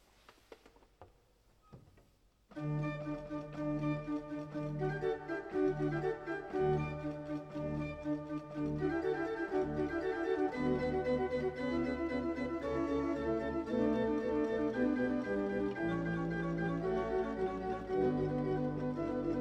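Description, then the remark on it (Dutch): Antonio Vivaldi's festive baroque Gloria in D for orchestra, choir and soloists, in D major, bursts in after a couple of seconds of near-silence, then carries on loud and bright with full, steady chords, strings moving in octaves and a driving pulse. “Een nogal bekend en feestelijk Gloria uit de koorliteratuur is het Gloria in D van Antonio Vivaldi voor orkest, koor en solisten.”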